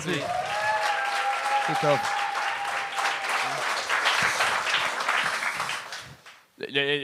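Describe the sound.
An audience at a stand-up comedy show breaks into loud, steady applause for a performer on her second time ever on stage, lasting about six seconds, with a few cheers rising above the clapping before it dies down and a voice starts talking.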